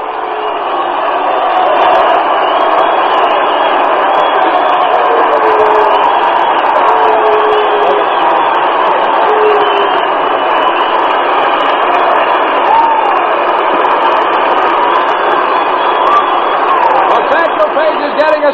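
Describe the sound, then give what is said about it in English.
A baseball stadium crowd roars in a standing ovation for pitcher Satchel Paige as he leaves the mound, with A's players in the dugout clapping. A dense, steady wall of cheering and applause holds loud and unbroken for nearly twenty seconds, with a few whistles rising through it. “standing ovation, and he has twice doffed his cap to the crowd here and actually bowed to them.”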